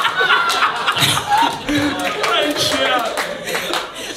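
A crowd claps steadily with dense, overlapping hand claps, mixed with scattered chuckles and laughter, all fairly loud throughout.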